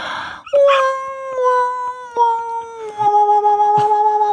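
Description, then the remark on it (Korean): A voice imitates a dog, making long, drawn-out wailing tones that waver slightly in pitch, in two loud sustained stretches with brief catches, more a howl than sharp separate barks. “왕왕왕왕 이거 듣고 싶어요.”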